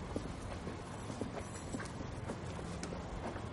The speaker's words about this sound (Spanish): Camina por el jardín y sube las escaleras de la entrada.